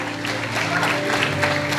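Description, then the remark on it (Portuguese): An audience applauds God after a prophecy in a steady, dense wash of clapping, sustained for the whole moment over held keyboard-like tones, with a faint voice mixed in. “Quem recebe essa profecia, aplauda Ele, exalte a Ele dá glória a Ele, você vai viver dias de honra.”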